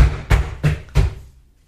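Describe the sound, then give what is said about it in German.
Three heavy stomps on the spot in a steady rhythm, each a loud, deep thud with a short rumble, then the sound fades into quiet. No one speaks. “eher auf der Stelle stampfen”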